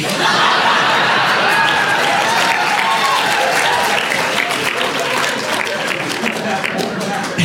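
Loud, sustained audience applause fills the whole stretch, a dense wash of many hands clapping at once with faint crowd murmurs and chuckles mixed in, steady until the end.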